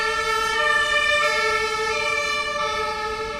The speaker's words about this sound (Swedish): Nu har det hänt något här. Är det brandkåren som kommer? Nej, det är ambulansen.